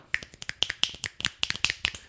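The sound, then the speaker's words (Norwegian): A quick, uneven run of sharp finger snaps mixed with dull low thumps like foot stomps, roughly twenty hits in two seconds, fairly loud and with no talking. “Trampeknips.”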